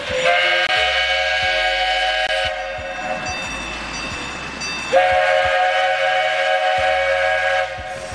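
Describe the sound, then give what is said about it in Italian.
A steam train chugs in a steady rhythm while its loud, shrill whistle sounds in two long blasts, each held for a couple of seconds, with no voices present. “Ciuf ciuf madafaka”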